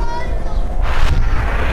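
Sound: gunfire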